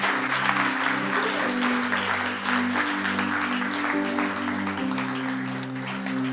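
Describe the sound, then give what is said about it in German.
Sustained audience applause as the audience stands, a dense and steady wash of clapping that fills the whole clip, with held low piano chords shifting underneath and no talking. “komm, wir stehen auf und geben ihnen nochmal einen riesen Applaus.”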